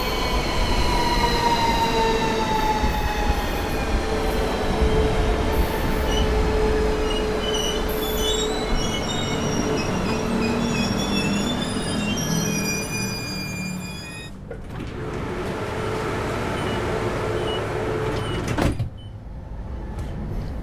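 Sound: train moving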